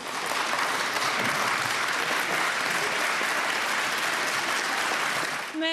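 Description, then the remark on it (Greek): Sustained applause from many people in parliament as the result of the vote passing the civil marriage equality bill is received, a dense, even wash of clapping that holds steady at full loudness for several seconds and only eases slightly at the very end, with no voices standing out. “Ένα παρατεταμένο χειροκρότημα και πολλά χαμόγελα αποτυπωμένα σε selfies γίνεται δεκτό το αποτέλεσμα τη ψηφοφορία.”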